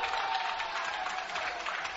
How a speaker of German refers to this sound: Läuft er durch die Verteidiger durch und macht den Touchdown. 46 zu 19. Jubel bei den Stuttgarter Anhängern.